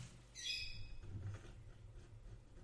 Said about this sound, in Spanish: Y se despide el pajarito, por cierto, que hoy resucitó en la última parte del podcast.